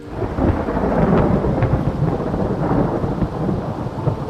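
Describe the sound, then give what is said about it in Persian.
A deep, continuous rumble of thunder rolls on for several seconds, loud, with steady rain hissing underneath it; no voices. “همون لحظه صدای رعدی نگاهشون رو کشوند سمت آسمون”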